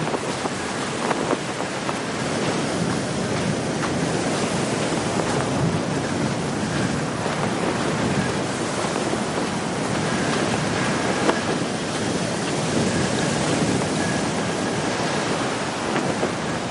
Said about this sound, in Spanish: Hace mucho viento.